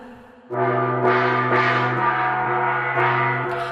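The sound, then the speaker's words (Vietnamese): A gong rings out loudly, beaten wildly with the handle of a stick about twice a second. Each hit piles onto the still-humming tone in a fast, relentless pounding with no voices. “nhưng thấy yên ắng trở lại thì anh lại lấy cán đập vào chiên điên loạn.”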